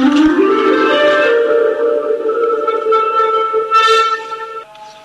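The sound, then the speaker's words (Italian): A loud electronic instrument built with an Arduino, an accelerometer and a touch sensor, working as a keyboard without keys, plays a sustained, buzzy synth tone that slides upward at the start, holds a rich steady pitch, shifts slightly, then drops in volume near the end, with no voices. “C'è Arduino e un accelerometro posto proprio qui sotto, un sensore di tocco. Appunto, questo funziona da, da tastiera senza tasti”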